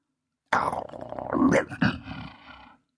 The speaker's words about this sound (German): knurrte Vater Wolf.